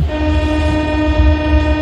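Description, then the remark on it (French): A New York subway train's horn blares in one sustained, loud tone over the heavy low rumble of the passing train, with no voices. “Le métro new-yorkais est inauguré en 1904”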